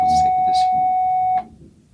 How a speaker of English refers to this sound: Sorry, the bell.